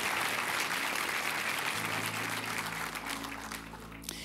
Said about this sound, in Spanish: Así que si hoy día dispusiste este domingo, aceptaste la invitación de alguien o estás ahí conectado a nuestro canal de YouTube, te queremos dar este aplauso de bienvenida a la iglesia. Que Dios te bendiga, bienvenido a casa.